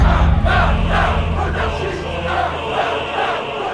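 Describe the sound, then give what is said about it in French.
A large crowd of people taking the Bastille in the 1789 French Revolution shouts and roars together in a dense, continuous din, with overlapping cries rising in waves throughout, loud, with no clear words. “En 1789, le peuple prend la Bastille, c'est la révolution. Partout dans le royaume, on se soulève et on gronde.”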